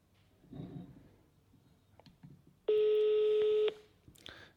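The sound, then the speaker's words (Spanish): A single loud electronic ring tone of an outgoing phone call sounds for about a second over a speakerphone, the phone propped in a glass, preceded by faint rustling and handling noises, with a brief clatter right after. “Vamos a llamar. Y llama. Altavoz.”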